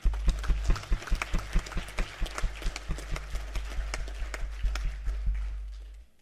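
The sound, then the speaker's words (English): An audience applauds with steady, fairly evenly spaced claps for about six seconds, tapering off toward the end over a low background hum. Nobody speaks. “And so, uh, uh, Let's, uh, let's give him a hand of applause, first of all.”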